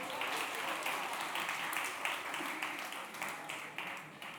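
An audience bursts into steady applause for a correct quiz answer on how many chapters the Book of Acts has, many hands clapping together in a dense, crackling wash that holds an even loudness for a few seconds with no voices over it.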